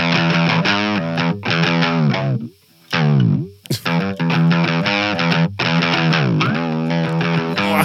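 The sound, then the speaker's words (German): Loud distorted electric guitar playing heavy chords and notes, with swooping pitch bends that slide down and back up, a brief pause midway, then more bent, wailing notes with no voices. “Ähm, Pitch Band okay. der Gitarre. Warte, ich kann es ja mal versuchen eben.”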